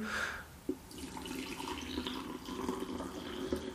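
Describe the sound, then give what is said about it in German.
Freshly brewed coffee pours steadily into a cup, a continuous trickling stream with a faint rising pitch as it fills, plus a couple of small clinks. “Das, also, frischen Kaffee einschenken, dann feine Sache.”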